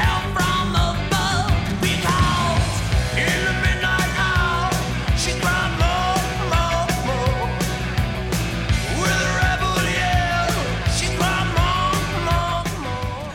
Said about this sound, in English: Number two, … … of my top albums of 1983.